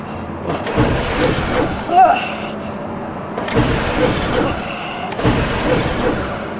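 A small buggy motor, just started with a part coupled to it, strains in repeated whirring, grinding bursts, surging and dropping roughly three times as it struggles to move against a storm, stuck in sand.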